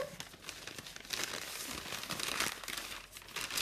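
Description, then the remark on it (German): Continuous crinkling and rustling of wrapping paper being folded and handled while wrapping a gift, with irregular bursts of crackle over about three and a half seconds and no voices. “So, jetzt versuche ich das mal annähernd gut zu verpacken.”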